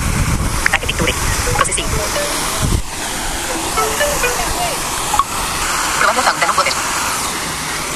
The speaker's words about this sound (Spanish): Y ahí de inmediato me dijo, probably a fountain of water, una fuente de agua que es lo que estaba tomando.